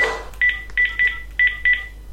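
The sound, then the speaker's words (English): Five short, clear keypad tones from a landline home phone being dialed to call a mobile number, in a quick uneven rhythm, fairly loud, with no one speaking. “So let me just dial my mobile number from my home phone.”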